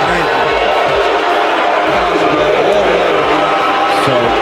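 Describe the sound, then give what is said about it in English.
A large stadium crowd boos loudly and steadily after the Dallas Cowboys are announced as on the clock, a dense, sustained roar of many voices with no pauses, filling the whole stretch without any single speaker standing out. “just just know this: the the booing is because the Dallas Cowboys were just announced to have been on the clock.”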